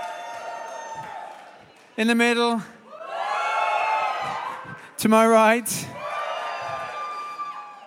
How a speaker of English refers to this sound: On my left, let's hear it out. How you doing? That's awful. Come on. On my left, let's hear a whoop, a cheer. How you all doing?